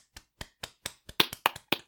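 A short run of about ten sharp hand claps, close by, starting evenly spaced and then coming a little faster and louder, with no voices.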